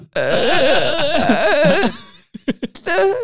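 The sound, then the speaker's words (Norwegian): A voice imitates a long creaking sound in the manner of Kåre Willoch, warbling and strained for nearly two seconds, then breaks into a few short bursts and a final drawn-out creak, loud. “Noen, noen, må ta over knirkinga, ja.”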